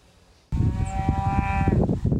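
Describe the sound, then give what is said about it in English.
A cow on an 18,000-acre cattle ranch outside Paso Robles, California, lets out one long, loud moo, its droning call lasting over a second before trailing off into low outdoor rumble. “has raised cattle on this 18,000 acre ranch outside Paso Robles, California for 140 years.”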